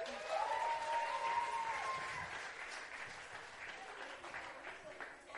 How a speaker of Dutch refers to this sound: Een applaus voor mijn assistenten.